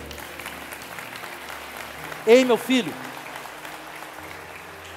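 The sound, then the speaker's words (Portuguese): A church audience applauds God steadily throughout, a dense, even wash of clapping, while a voice briefly calls out over it midway through. “Aplauda Ele.”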